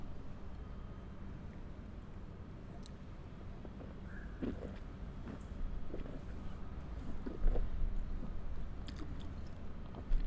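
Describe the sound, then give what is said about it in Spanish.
Quiet mouth sounds of someone taking a small sip of sparkling wine and tasting it: soft slurps and a few wet smacks over a low, steady background rumble, with no talking. “Y ahora vamos a pasar la boca Recordándoles por favor que a la hora de hacerlo con un espumoso, el sorbo debe ser menor para no cometer el exabrupto que en algún momento me pasó a mí.”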